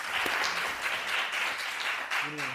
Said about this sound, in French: Eh bien, merci beaucoup pour votre présence. Je pense qu'on peut applaudir nos deux intervenants